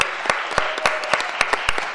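An audience applauds steadily for the technical crew of a broadcast, a dense wash of clapping with sharper individual claps popping out every fraction of a second, sustained at a moderate level with no voices.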